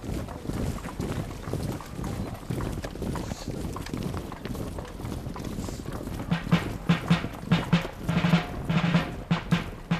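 Horse hooves clip-clop in a steady rhythm against a windy, noisy background. The hoofbeats grow louder and sharper toward the end, as if the horse is approaching.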